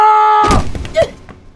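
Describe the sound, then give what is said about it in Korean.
A held electronic-sounding tone cuts off into a heavy, thudding punch to the jaw in a boxing ring, followed by a few quicker, softer thumps as the struck body falls onto the ring, and a brief squeak that fade out. “주먹이 턱에 내리꽂힌 그 순간,”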